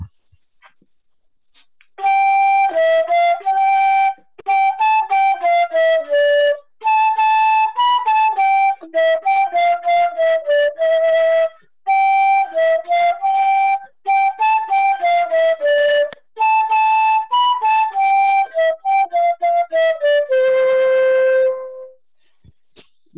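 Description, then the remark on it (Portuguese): A flute plays a steady, mid-to-high melody of short, clear notes in quick phrases with brief pauses, ending on a held tone. No one speaks. “Já tinha seis anos de flauta, né?”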